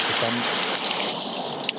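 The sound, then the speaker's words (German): Heavy rain pours down in a dense, steady hiss with no let-up, fairly loud, with a faint murmur of a voice briefly underneath near the start. “Regen, Heavy wow. Rain.”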